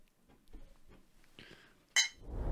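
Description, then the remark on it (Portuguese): Glasses clink together once in a toast, a bright ring that fades quickly, preceded by soft handling noises and followed by a low rumbling rustle. “Saúde.”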